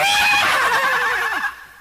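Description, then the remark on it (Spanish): A horse whinnies loudly, one shrill, wavering neigh that slides downward in pitch and trails off after about a second and a half, with no voices. The horse is being ridden at a wall and stops short before it. “Al llegar a la barda, los caballos se frenan nada mensos”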